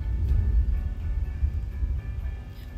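A deep, continuous rumble of thunder rolls on for a few seconds, low and heavy with slight swells in loudness, with no voices present.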